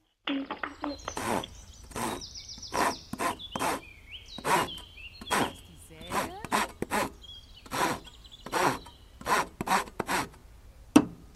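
A hand saw cuts through wood in a steady run of rasping back-and-forth strokes, about a dozen in quick succession, fairly loud, with faint background chirps.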